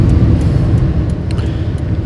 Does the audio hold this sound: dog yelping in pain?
no